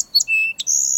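A sparrow sings a quick run of high, bright notes: a short chirp, a thin sustained whistle, then a sharp trill ending in a long ringing tone, clear with no talking.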